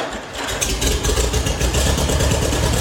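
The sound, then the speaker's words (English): An old farm tractor engine chugs into life and settles into a steady, rough idle, its low rhythmic thumping loud with a broad mechanical clatter on top. “That is how farm tractors used to sound back in the good old days”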